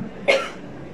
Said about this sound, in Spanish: Y tosemos. Porque nos hemos hecho el valiente durante mínimo dos años mucha gente. ¿Vale? Y ahora hay que sacar toda, toda la rabia, el enfado, la pena, todo lo contenido.